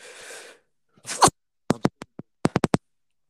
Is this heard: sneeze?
yes